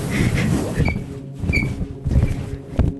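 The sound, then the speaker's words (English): An old bed creaks and squeaks repeatedly, with short high-pitched squeals over low groaning creaks in an uneven rhythm, fairly loud, with no one talking. “this bed is so old It's squeaky, dude.”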